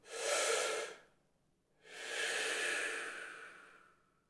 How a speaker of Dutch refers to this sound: En lang uit te ademen. Ja, dus langer uit dan in. Ja. Dus hè, voor het geluidseffect adem ik dan eventjes door mijn mond, want als ik ga lopen snotteren, maar dan